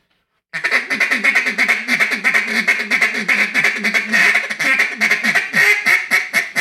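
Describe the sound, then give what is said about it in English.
Rapid, continuous duck call cut-down feed chatter, a tension-getter feed: a fast rolling stream of clipped quacking notes blown loud without pause for several seconds, with no voices. “It's a cut down feed, is what it is. It's basically a tension getter feed.”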